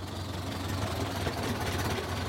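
A car engine idles as the car stops, with a steady, low rumble and faint mechanical ticking, holding an even loudness throughout the short stretch with no voices.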